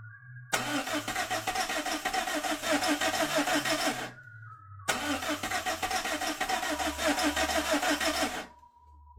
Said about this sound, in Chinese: 发动机发出一次又一次的无力嘶吼，却依旧趴在原地。